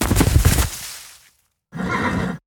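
A horse neighs loudly, a rough shaking whinny that fades out, then after a short silence a second, steadier neighing call cuts in.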